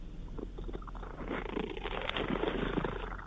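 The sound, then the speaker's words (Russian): A cat named Motya, from the Bulgakov Museum, purrs steadily, a low continuous rumbling vibration with a soft rhythmic pulse, growing slightly louder toward the end, with no voices. “а вот сейчас пришел э, Мотя, он бегемот, он из музея Булгакова, он сейчас мурлыкает буквально 10 секунд, ладно, послушаешь.”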